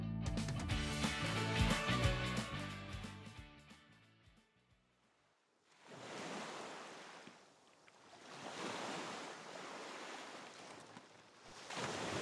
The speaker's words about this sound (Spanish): Esa brisa marina, ese ruido de las olas, el vaivén, cuando estamos en días que tenemos mucho trabajo y tenemos muchos deseos de descansar, muchas veces llega a nuestra mente esa imagen de estar en la playa, en un sitio tranquilo, sin ruido